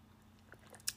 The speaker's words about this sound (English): Take a sip of coffee. Super good.